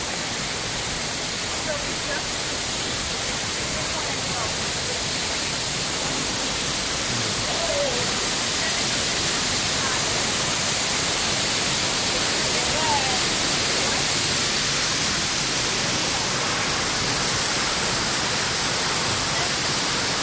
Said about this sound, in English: Come look at the fountain, waterfall.